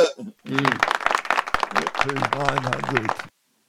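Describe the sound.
A few seconds of scattered clapping for cricketer Marnus Labuschagne, crisp irregular slaps over lively voices that could be cheering or laughter, ending abruptly.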